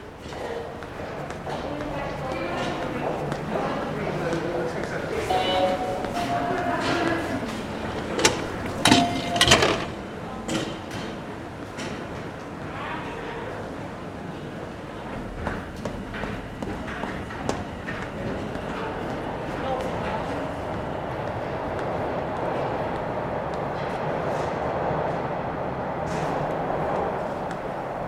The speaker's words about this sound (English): So, this is the first time I've been in a subway station for almost a year to the day, and it was really surreal.